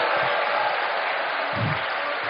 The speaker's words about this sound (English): Come on, come on, you want to give God a good clap offering? Let's give him a good clap offering.